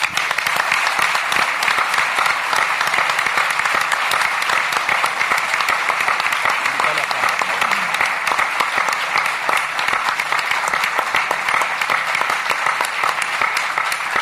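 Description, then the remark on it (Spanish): A crowd applauds steadily in a dedication to Martín and Mariana Moyano, a dense, sustained wash of many hands clapping at an even loudness for the whole stretch, with no talking over it. “Entonces, eh, en este momento de celebración, y para entender que, también es parte de la vida, yo quiero que a Martín y a Mariana les dediquemos un fuerte aplauso.”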